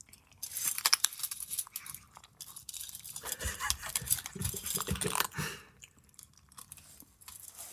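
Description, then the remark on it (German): Two cats crunching dry food, a steady run of sharp, crackly chewing clicks that swells in the middle and fades toward the end, with no talking. “Wisst ihr, was die, wisst ihr, was die machen, wenn man den ans Essen will oder die beim Essen stört?”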